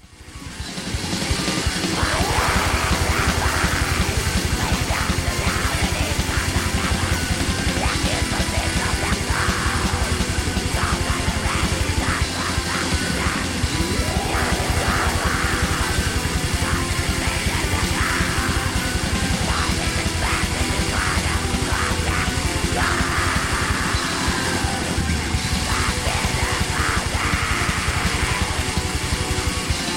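A dense, loud wall of distorted, buzzing guitars and relentless pounding drums plays continuously, an early Norwegian black metal track with harsh, chaotic texture and no clear break throughout.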